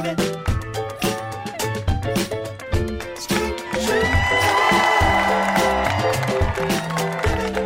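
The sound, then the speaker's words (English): A live audience in Los Angeles cheers and whoops over loud, rhythmic music with a steady beat, the crowd noise swelling into a sustained roar in the second half. “Look at this beautiful crowd.”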